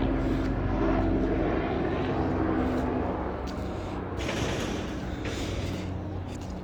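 A helicopter drones steadily overhead, its low engine rumble and rotor hum filling the whole stretch at a fairly loud, even level with no voices.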